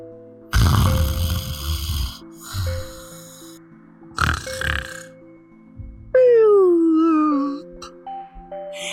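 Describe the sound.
Several different snores from sleeping story characters (Big Silly Bear, Leapfrog, Plod Plod Tortoise) follow one another: a long rumbling snore, a shorter rasping one, another snort-like snore, then a high whistling tone sliding downward, all over a faint steady background hum.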